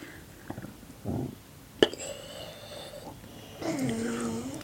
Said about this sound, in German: Die … schläft schon, genau, die schnarcht ganz laut, hört mal.